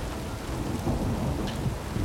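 Steady rain hisses throughout while a deep, rolling rumble of thunder swells underneath, continuous and fairly loud, with no voices.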